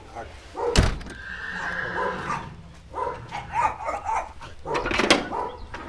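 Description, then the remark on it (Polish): Minor, a Polish cold-blooded (PKZ) draft horse with a dam from the Jankowice stud and a Swedish Ardennes sire, whinnies in a long, wavering neigh, followed by shorter snorting calls against outdoor background noise, with a sharp knock near the start. “To jest e, koń e, zimnokrwisty PKZ, matka ze stadniny Jankowickiej, a ojciec typowy Arden szwedzki.”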